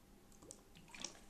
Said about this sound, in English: pardon me I was drinking water. I get thir- thirsty, you know, normal human functioning.